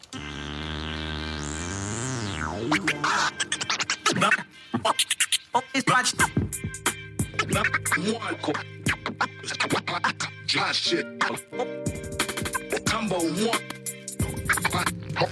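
A loud hip hop track with a steady bass line and beat, overlaid with repeated record scratches whose pitch sweeps up and down in quick rhythmic bursts, played by a man just moving his hands around.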